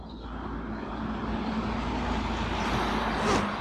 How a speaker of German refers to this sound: Was ich jetzt gerade mal echt feiern muss, ist dieser Elektrobus, der hier rumfährt. Das ist ja richtig schick. Habt ihr das schön? Ja. Kein lauter brummender, knatternder Bus oder sowas.